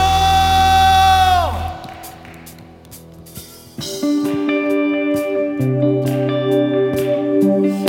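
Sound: audience applauding and cheering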